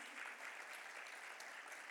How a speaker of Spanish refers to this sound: Denle un fuerte aplauso a Jesús